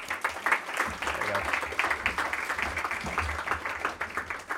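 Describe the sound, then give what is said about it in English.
An audience applauds steadily for several seconds, a dense wash of many hands clapping at once, loud and even throughout, with a faint murmur of voices mixed in. “Everybody give her a big round of applause.”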